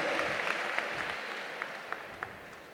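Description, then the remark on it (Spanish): Steady applause from an audience at a convention, a dense wash of many hands clapping at an even level with a few sharper individual claps standing out, no voices over it. “Un aplauso fuerte, un aplauso fuerte”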